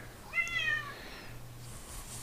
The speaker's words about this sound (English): And yeah, that's a cat you hear in the background if you're wondering. I've locked him out and now he's whining underneath the damn door.